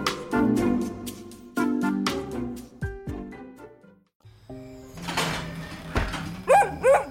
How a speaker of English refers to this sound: It's just a gate. I told her to meet us here at the gate.